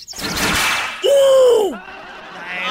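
A rattling, clattering smack of a birdcage with birds inside striking someone, followed by a loud drawn-out squawk-like cry that bends upward then slides down before fading into a faint hiss.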